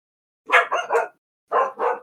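A dog barks at the door in two quick bursts: three sharp barks in a row, a brief pause, then two more. No one speaks over them.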